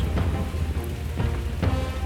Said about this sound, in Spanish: por la noche a la ciudad de Córdoba, bajo la inclemencia de la lluvia,